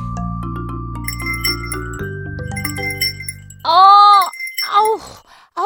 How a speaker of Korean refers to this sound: 어, 종소리 못 들으셨어요? 종소리? 응, 아니.